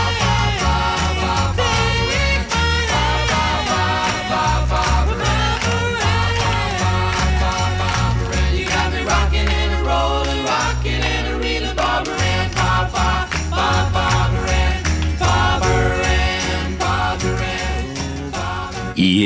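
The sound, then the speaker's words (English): An upbeat sixties-style pop party song plays loud and steady, with sung vocals over a driving full band, punchy bass and bright rhythmic accompaniment throughout. “…, of course, were fabulous, but this classic was always guaranteed to get the joint jumping”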